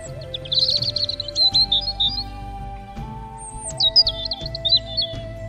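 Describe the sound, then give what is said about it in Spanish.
In the morning, a bird perched on a white mound of snow whistles a lively song of quick chirps and trills in two bursts, heard over a soft, steady musical tone and low rhythmic accompaniment. “Por la mañana, un pájaro se posó sobre el montículo blanco y silbó una canción.”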